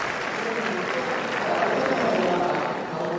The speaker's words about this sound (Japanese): メイケール枠入り嫌がっているか今収まりました名 k ルの枠入りに拍手が湧き上がります